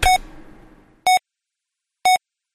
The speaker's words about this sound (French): Et les 10 dernières secondes sont ponctuées de petits bips.